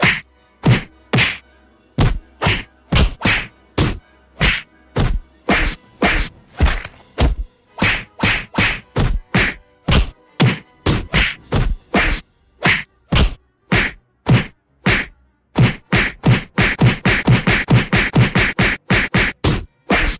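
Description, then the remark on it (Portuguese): A rapid barrage of sharp whacks and thuds from an intense fight inside a base, like punches and blows landing one after another, loud, speeding into a dense flurry of impacts near the end with no voices. “O Farnir do lado de fora escuta uma luta intensa.”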